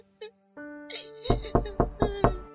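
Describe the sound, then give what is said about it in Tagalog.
Five quick, sharp knocks on a door by nurses bringing a baby, in a steady rhythm and fairly loud, sounding over a soft sustained tonal hum with no one speaking. “Teka sandali, yung mga nurse na atayang kumakatok, dala nila si baby.”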